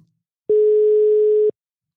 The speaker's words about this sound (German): ist jetzt gleich bei uns am Telefon. Wir rufen ihn jetzt mal an.